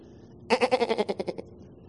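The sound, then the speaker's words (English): A single sheep bleat, a wavering, quavering cry lasting about a second, fairly loud, heard alone against a quiet background with no talking. “Have you ever met a little sheep? You ever hung out with a little sheep?”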